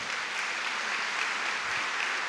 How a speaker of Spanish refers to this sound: Si vas a aplaudir, apláudele al Señor.